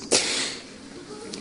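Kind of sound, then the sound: human body sound, sneeze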